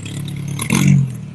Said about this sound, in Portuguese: Só passar o carro aqui.